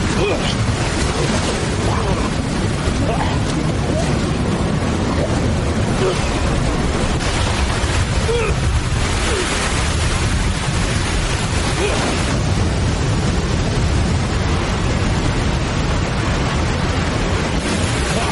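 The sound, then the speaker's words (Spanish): Loud, steady roar of icy river water rushing through rapids, churning water pouring continuously for the whole stretch, with surging swells in the flow. “El agua helada le arrastra hacia los rápidos, que que su cabeza se sumerja una y otra vez, sin darle casi ocasión para respirar.”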